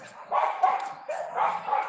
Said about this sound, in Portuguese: Deixa os dogs latir aqui.